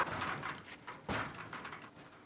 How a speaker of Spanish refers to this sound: No, que lo tuve que calmar, güey, porque dije, güey, aguanta, güey, vas a madrear la puerta, vas a sacarla del riel, qué sé yo.